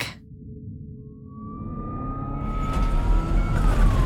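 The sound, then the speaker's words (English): An ambulance siren rises out of a low engine rumble, its steady wailing tone swelling louder. No one speaks. “I just hear the ambulance like being jiggled around, going over all these bumps, and I hear the sirens blaring, and I hear the paramedic telling me like, "Oh, wake up!”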